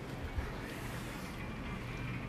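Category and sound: nature, heavy downpour of rain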